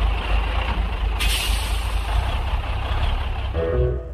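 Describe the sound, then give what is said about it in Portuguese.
A heavy box truck pulls into a gas station, its engine droning steadily, with a sharp hiss of air brakes partway through and a rising whine near the end as it comes to a stop. “E diz aí que naquele instante um caminhão encostou no posto.”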